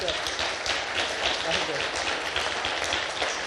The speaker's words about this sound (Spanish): muchas gracias por habernos acompañado y despidámoslos con un aplauso.